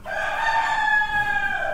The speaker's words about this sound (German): Die Hühner des Instituts für Virologie und Immunologie in Mittelhäusern, kurz IWI, sie sehen aus wie ganz normale Hühner. Weißes Gefieder, roter Kamm und Halsbehänge, der Gückel sticht hervor.